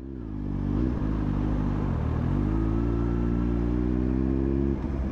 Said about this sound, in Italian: Prende la pistola. Sale in moto e parte.